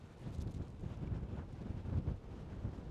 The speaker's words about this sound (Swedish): Det blåser.